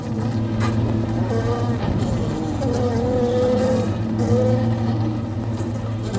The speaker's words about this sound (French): c'est un bruit que vous connaissez bien et que les auditeurs auront certainement reconnu. Est-ce que vous pouvez nous en dire un peu plus sur ces insectes pollinisateurs que sont les abeilles